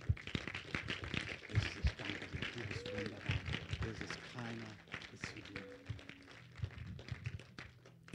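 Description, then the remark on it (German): A crowd at a church gathering applauds for Jesus after a prayer, with dense, steady clapping that fills the whole stretch at moderate loudness, while voices call out and speak over the clapping. “Lass uns mal Jesus einen Applaus geben.”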